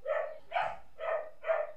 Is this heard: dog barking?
yes